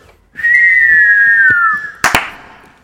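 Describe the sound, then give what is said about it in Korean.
A firework whistle: a steady high whistling tone that slowly drifts lower for over a second, then a sharp, loud burst of a bang and crackle as it pops. “영웅 씨하고 내가 이제 불꽃놀이 시작하고 네.”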